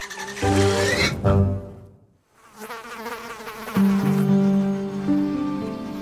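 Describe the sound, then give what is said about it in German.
A fly buzzes loudly with a droning, harmonic hum that wavers in pitch, fades out briefly in the middle, then returns and holds steady. No one speaks. “Das Tier, das wir suchen, ist ein Zweiflügler und wird auch Spaltschlüpfer oder Sechsfüßer genannt.”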